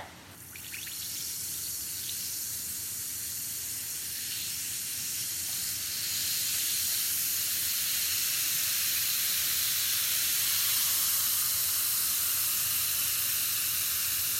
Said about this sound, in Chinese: 这个就是泡腾片的声音